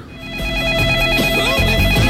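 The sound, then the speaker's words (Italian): A telephone rings for an incoming call, its steady high electronic tones sustained for a couple of seconds over a busy, loud musical background, with no one speaking. “Pronto? Vediamo chi è in linea.”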